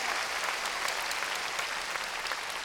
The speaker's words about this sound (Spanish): A ver, démosle palmas fuertes al Señor. Gloria a Dios.